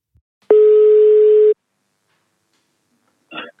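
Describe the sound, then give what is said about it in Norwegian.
A single steady telephone ringing tone of an outgoing call sounds for about one second, loud and clear, followed by silence and a faint brief rustle near the end. “Så derfor ringer jeg heller til Klaus nå, og skal høre historien rett fra han.”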